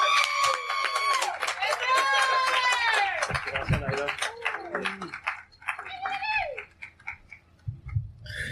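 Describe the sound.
An audience claps steadily while voices whoop and cheer over it, the crowd noise loud and lively at first before thinning out toward the end.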